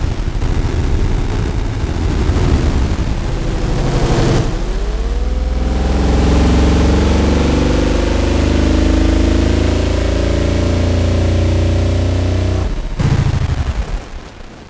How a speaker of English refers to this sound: The engine thrust begins to brighten, changing from a soft purr to a mild grumble as the two ships initiate a forward movement.